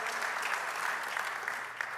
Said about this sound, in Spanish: Denles un aplauso a este grupo de alabanza que lo hacen de manera increíble y con tremenda unción.